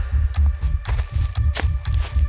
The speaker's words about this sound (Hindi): सारी रात रह रहकर कर किसी के टहलने की आवाज आती रही